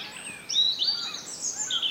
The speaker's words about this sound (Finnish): tänä aamuna punarinta aloitti siellä aikaisemmin ja sitten taas innostui uudestaan laulamaan. Joo, siinä oli pieniä taukoja välillä ja tässä, kohtaa se tuli selkeästi ihan siihen oikein esiintymään meille.